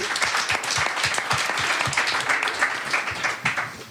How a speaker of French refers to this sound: On peut applaudir Jean-Luc qui est en train de, nous animer cette émission aussi.